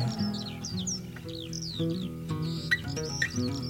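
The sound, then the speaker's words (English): A bird in the sky cries out again and again with quick, high, sweeping chirps, fairly clear, layered over a steady low droning musical backdrop. “In the sky, a bird was heard to cry.”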